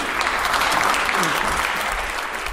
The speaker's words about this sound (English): It is one of my favorite rituals. I, I just love it. I, it and everybody whatever, applauds, right? Everybody applauds. Yeah. It's it is it is a, a, moment of collegiality in the house as they welcome a new member.